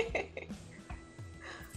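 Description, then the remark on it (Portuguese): A person coughs several times in quick succession, short rough bursts spaced unevenly over a couple of seconds, fairly loud, with no talking. “Nossa, eu tô com a tossideira. Não é coronga, gente.”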